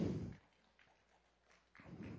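Three hand claps ring out, sharp and spaced apart with short pauses between them, with no one speaking.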